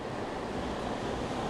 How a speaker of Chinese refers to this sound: 听着海浪的声音，听着蝉的声音，吹着凉爽的海风